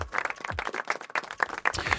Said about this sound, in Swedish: Ja, men det är verkligen värt en applåd.